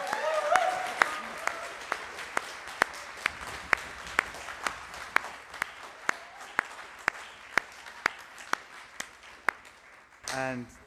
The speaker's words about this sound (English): First of all, to a wonderful music group that somehow um, from disparate places and on WhatsApp group managed to produce something as wonderful as this. So can we give them a, a round of applause?